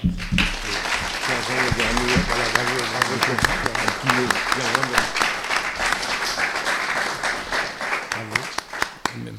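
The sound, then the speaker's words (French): An audience applauds itself after a two-hour debate, dense clapping filling the whole stretch at an even loudness, with voices talking and murmuring underneath the applause throughout. “2 heures de débat, vous pouvez vous applaudir déjà.”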